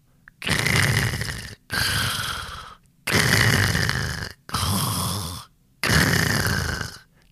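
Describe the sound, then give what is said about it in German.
Five loud, rasping snores from a dinosaur pretending to be fast asleep in bed, in a steady rhythm, each a long rumbling breath separated by short pauses, with no talking. “Der Dino schnarcht sogar.”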